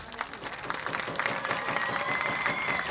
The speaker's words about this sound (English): And you hear the crowd as he gets up.